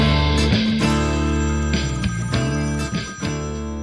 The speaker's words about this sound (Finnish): Siellä rupesi soimaan ristiin jo. Eikö mulla soi kaikkea, mulla on toi, mulla on toi puhelin kun soi, niin sitten mulla soi myöskin toi läppäri. Täällä soi kaikki